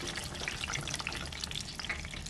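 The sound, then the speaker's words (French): Panisse cut into fries crackles and sizzles steadily in a deep fryer, cooking for two to three minutes, a dense, bright hiss of countless tiny pops holding an even level throughout with no one speaking. “on va venir les plonger dans la friteuse. Et voilà.”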